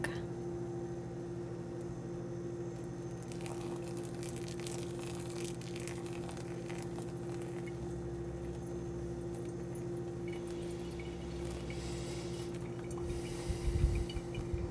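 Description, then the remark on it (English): Kitchen activity over a steady low hum while dinner is made and pour-over coffee is brewed: scattered clinks of glass and utensils, faint liquid trickling and pouring, then a louder clatter near the end. “I'm just in the process of making some dinner while also steeping, pouring over some coffee for my husband who just got back from work.”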